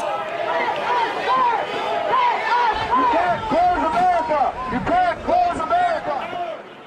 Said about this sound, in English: Over the weekend, crowds from Colorado to Texas and Maryland to Ohio took to the streets to protest stay at home orders put in place to slow the spread of COVID 19. In some states, protesters stayed in their cars and honked their horns.